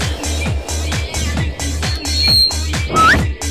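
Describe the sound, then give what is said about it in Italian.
A thin, high-pitched microphone feedback whistle rings out briefly over steady, rhythmic thumping taps of hands patting a partner's back during a shiatsu massage, followed by a short rising squeal near the end. “Spostiamoci un pochino che fischia.”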